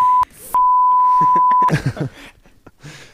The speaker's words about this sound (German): Oh, jetzt habe ich verraten, wo ich wohne. äh, Muss das auspiepen? ja, bitte. Bitte, bitte.